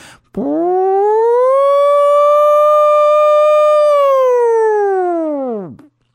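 A single loud siren wail rises slowly in pitch, holds a steady high tone for several seconds, then sweeps back down and fades out, sounding alone without any voices.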